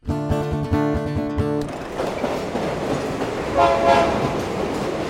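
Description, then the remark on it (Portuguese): A loud train horn blares for over a second, then gives way to the steady heavy rumble of a train rolling along the rails toward a town near the border with the British sector, with a brief metallic whine partway through. “Amanhã pegaremos o trem para uma cidade próxima à fronteira com o setor britânico.”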